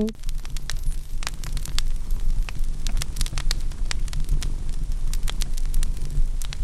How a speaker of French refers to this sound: un son de feu de cheminée, parce que dans la salle, il y a une cheminée